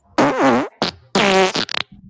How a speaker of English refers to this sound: Uh, we did have a request from Johnny in the chat to play lots of fart noises. So, real quick interlude.